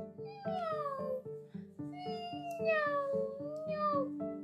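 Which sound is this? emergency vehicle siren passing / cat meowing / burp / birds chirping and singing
cat meowing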